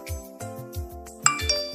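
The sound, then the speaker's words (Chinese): A text message notification chime: bright, high ringing dings, with two sharp clinking accents near the end, over sustained tones and a soft, pulsing low beat. No one speaks. “是你的短信”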